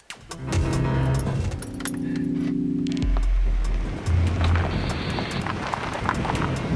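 Keys jingle as a man gets into a car; the engine turns over and settles into a steady idle, then revs and rumbles as he drives off, with no one speaking.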